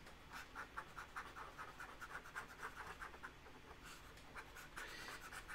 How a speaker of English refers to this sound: So we got his INFJ uh, over here. Um, so I'm gonna I'm actually going to erase this